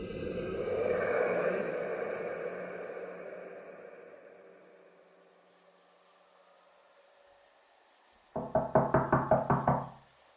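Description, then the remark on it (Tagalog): A rapid series of about seven or eight firm, loud knocks on a front door near the end, following a stretch of low, fading rumbling noise with no voices. “Siya naman ay kumatok sa harapang pinto.”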